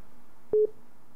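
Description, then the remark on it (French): A single short, steady telephone tone, like a busy signal after a call cuts off, sounds once at moderate loudness over a faint background hiss. “Le crédit est peut-être fini, c'est le téléphone qui dérange.”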